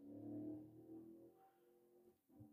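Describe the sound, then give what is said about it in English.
A loud car engine revs outside, its low rumble swelling and dipping over a couple of seconds before settling into a steady growl, with no voices over it. “I heard that motorcycle. Let me tell you something. It's not a motorcycle. It's a car.”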